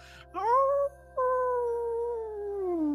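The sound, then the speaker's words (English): A person howls like a wolf around a fire during a ceremony, a loud voice rising into two long sustained tones with a brief break between them, the second slowly falling in pitch as it fades out. “… inviting you to join her in the howl.”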